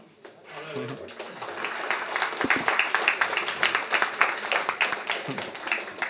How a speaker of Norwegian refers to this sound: Det er ikke alle som får applaus.